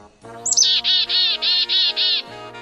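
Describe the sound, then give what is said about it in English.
A bird gives a loud series of about six harsh, evenly spaced calls after a brief rising chirp, an alarm call warning of a predator nearby, with no voices present. “Birds sing and call out for a wide variety of reasons to signal where food is, to let buddies know that there's a predator nearby”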